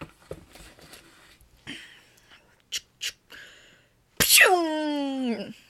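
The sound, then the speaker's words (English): A voice imitates rummaging through drawers and a gun misfiring: soft scuffling mouth noises, two sharp clicks, then a loud, sudden burst that slides downward into a sputtering whine. “Rummaging through the drawers to get a gun, and it misfires.”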